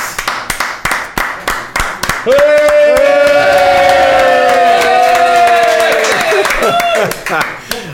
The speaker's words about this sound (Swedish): Ja, det var nästan en, en, eh, en riktig applåd som det är på Ullevi ibland ju.